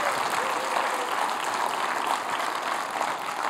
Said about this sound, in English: So, I want you to give Jesus the biggest round of applause because we're chasing after Him today.